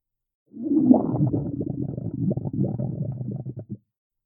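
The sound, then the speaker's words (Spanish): A long, gurgling stomach growl from a very hungry woman rumbles low and steady for about three seconds, fairly loud, with bubbly fluctuations before cutting off abruptly. “Entonces, ella oye su estómago.”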